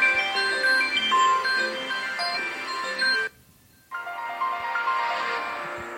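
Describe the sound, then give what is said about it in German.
The Windows XP shutdown sound: a soft, synthesized chime melody of layered descending tones, a brief silence, then another warm melodic phrase that fades out. No one speaks. “Das war runterfahren XP.”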